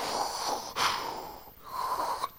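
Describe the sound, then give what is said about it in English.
A voice imitates the breathing of someone wearing a breathing tank, sounding like Darth Vader: a raspy inhale and exhale, then another drawn-out breath, fairly loud with a hissing, wheezy texture and no words. “You know, we were wearing those breathing tanks um, where you sound like Darth Vader”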